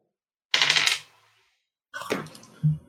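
Dice for an intellect roll clatter and rattle briefly across a hard tabletop, a bright burst followed by a second tumbling roll that settles with a soft knock, alone with no talking.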